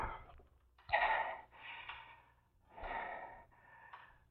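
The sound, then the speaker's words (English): Heavy, ragged breathing of a person lying back on a bed, gasping while waiting for their pulse to return to normal, with sharp gasping inhales alternating with long airy exhales in a slow, uneven rhythm, no talking. “I lay back on the bed, gasping and waiting for my pulse to get back to normal.”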